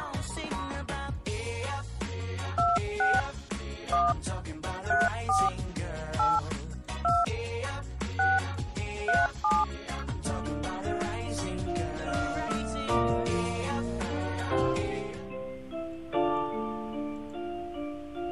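A quick run of telephone dialing tones, short paired beeps pressed one after another at an irregular pace over busy background music, as a call is placed again after an earlier call failed to connect, with the beeps stopping toward the end as the music carries on.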